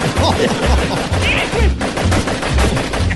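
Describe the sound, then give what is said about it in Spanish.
A salvo of gunshots: loud, booming shots fired in a rapid, fairly steady rhythm, roughly eight or nine blasts in a few seconds, with a dense, noisy wash between them. “una salva!”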